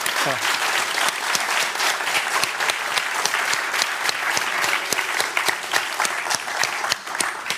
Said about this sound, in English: I'd first like to have a big applause for this team, actually. Yes, exactly. If that's possible, okay?